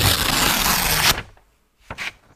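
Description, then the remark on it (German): A stiff paper card is torn in one long, loud, ragged rip lasting about a second, followed by a quieter pause and a couple of brief crinkling rustles. “Also zerreißen.”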